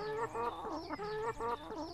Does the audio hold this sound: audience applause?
no